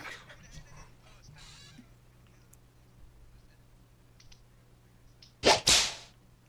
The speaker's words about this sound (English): Oh, is that the whip?